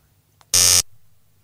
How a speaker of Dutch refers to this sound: Wacht even, er is telefoon. Oh, wacht even.